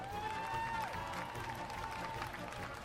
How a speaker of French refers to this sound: Applaudissez-le pour l'encourager.